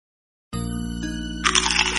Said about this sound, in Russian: Ты слышал этот хруст? Говорят, что кто-то пропадает после такого хруста.